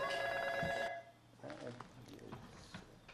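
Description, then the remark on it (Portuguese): A telephone rings once with a loud, steady electronic trill lasting under a second, then cuts off as a person starts speaking. “O fax, com telefone, está do lado esquerdo.”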